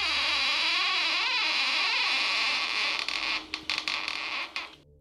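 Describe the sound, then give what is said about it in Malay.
A bedroom door creaks slowly open in one long, wavering groan that lasts several seconds, then breaks into a few short rattling clicks before falling silent. “dia pun buka pintu perlahan-lahan”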